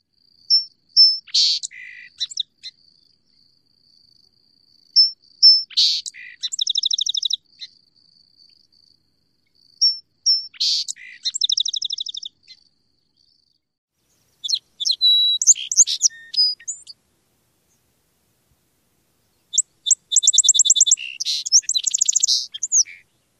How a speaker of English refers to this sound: There are a few different mnemonics for the song sparrow, including Maids, maids, maids, put on your tea kettle, ettle, ettle. Hip, hip, hurrah, boys, spring is here. Mage, mage, mage, pick beetles off the water's hot.